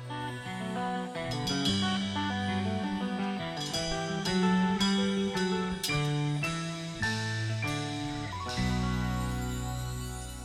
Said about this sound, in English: And little chimes.